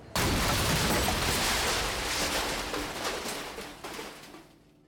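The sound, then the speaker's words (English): A massive explosion erupts suddenly and loudly, its deep roaring rumble filling the space before slowly fading away over several seconds. No voices are heard. “As the two lighter gray figures step on board, there's a massive explosion that even seems to shake your bones.”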